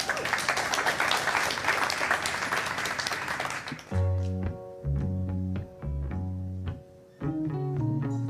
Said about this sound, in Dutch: Mag ik een groot applaus